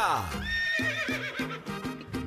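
A horse whinnies loudly, one long shrill neigh that starts with a falling cry and breaks into a quavering trill, over a steady rhythmic low backing.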